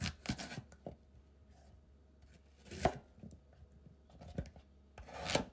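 A knife chops on a cutting board while making potato salad: a handful of irregular, sharp knocks with soft scraping and smaller taps between them, fairly quiet, with no voices.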